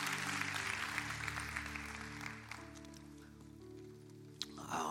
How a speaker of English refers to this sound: Let's give our veterans a, another big round of applause. Thank you so much.